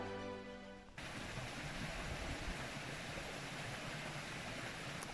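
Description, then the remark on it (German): A brief musical tone ends after the first second, giving way to a steady, loud roar of rushing water close by, like a stream or waterfall, continuing without pause and with no voices. “Hörst du das Wasser im Hintergrund? Hier ist es total laut und total magisch”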